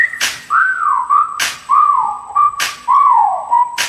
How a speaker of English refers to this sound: There go, damn, shorty look good, and I'm thinking about getting at her. Okay, time to whistle at her. Hey, girl, you make my whistle blow.